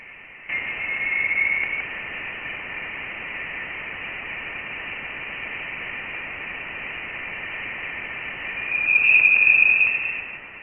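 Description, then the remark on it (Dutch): An eerie space sound, probably caused by vibrations of gas in the space between galaxies: a steady, muffled radio hiss lasting about ten seconds, with a thin high whistling tone that flickers at the start and swells louder near the end. “Het geluid is waarschijnlijk afkomstig van trillingen van hoeveelheden gas in de ruimte tussen verschillende sterrenstelsels.”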